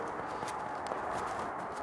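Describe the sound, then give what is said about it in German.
A young horse's hooves clop along at an unhurried walking pace as it is led around, a few dull, evenly spaced hoof strikes on firm ground, with no one speaking. “Magst du mich da in die Runde mal führen?”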